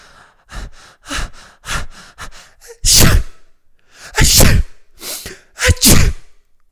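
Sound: voice imitating a sneeze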